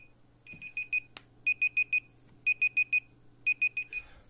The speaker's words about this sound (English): oh, the alarm's just about to go